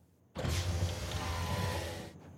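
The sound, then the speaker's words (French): An electric car window whirs partly down for under two seconds, a steady motor hum that starts abruptly and stops short, fairly loud with no one talking. “alors il entr'ouvre la fenêtre de sa voiture et il demande aux deux adolescents ce qu'ils lui veulent.”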